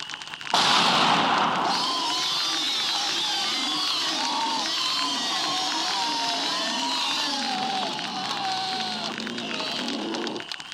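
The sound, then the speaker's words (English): A flash grenade thrown outside into a driveway goes off with a sudden loud blast, followed by a long stretch of noisy, chaotic commotion with overlapping cries and voices continuing for several seconds. “It's called a flash grenade, and it seems to have had the desired effect.”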